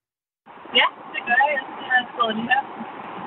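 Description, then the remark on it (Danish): A steady, muffled road and engine hum from inside a moving car, heard through a thin, band-limited phone line with some crackle, while a caller from Odense, Denmark, talks over it on a radio phone-in. “Jeg er lige i bilen, så jeg håber, at øh, forbindelsen er okay.”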